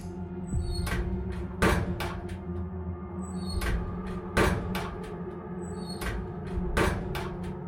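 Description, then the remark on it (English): A metal locker door is opened and slammed shut three times in a row, each sharp open-and-bang pair evenly spaced over a low, steady background hum. “Opening and shutting my locker door three times in a row was all that my obsessions demanded of me at that moment to ensure Romy made it through this in one piece.”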